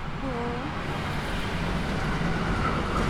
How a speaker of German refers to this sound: Jetzt kommt hier schon wieder ein Zug.